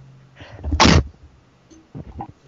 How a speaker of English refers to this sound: Yeah, no, sorry, I was just sneezing.